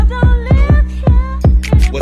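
A hip-hop instrumental beat plays loud and close, with booming, pitch-dropping 808 kicks in a steady rhythm under a sustained bass and a bright melodic line, crisp hi-hats accenting later hits.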